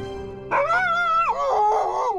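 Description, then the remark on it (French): A dog, afraid of heights and launching itself down a slide, lets out a loud yelping howl of fright, a wavering, drawn-out cry that dips and rises again over about two seconds, with no one speaking. “À trois, j'ai fermé les yeux et j'ai crié. Oui, j'ai le vertige. En chien, ça donne ça.”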